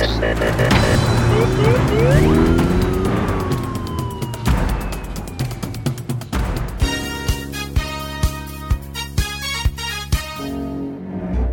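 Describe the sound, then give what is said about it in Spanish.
A police patrol car's siren wails with rising and falling tones over layered music, then a driving, rhythmic action track takes over with steady, punchy beats, loud. “Vamos, arranca la patrulla en esa radio música de acción”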